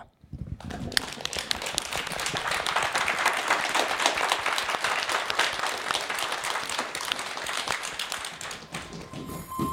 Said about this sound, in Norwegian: Og eh, hvis du som hører på har lyst til å være med og stille spørsmål neste gang, så er det bare å komme seg til Deichman i Bjørvika den siste lørdagen i måneden. Da kan du sitte her sammen med disse kule barna som du hører klappe nå.